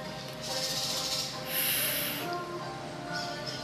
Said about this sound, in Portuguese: E ore agora a Divina Quanim, respirando profundo.